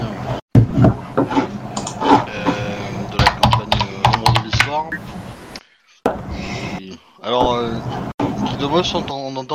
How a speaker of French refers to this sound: On entend un petit peu cliquer, on entend de ta souris, on entend je de sa chaise. Alors ça doit être la souris je pense.